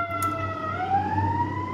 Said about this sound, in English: I apologize. There's a this is typical Chicago. There's a fire truck passing, but I'll talk through it.